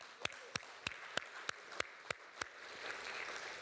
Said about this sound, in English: Hey, if you're, yeah, you can give a round of applause.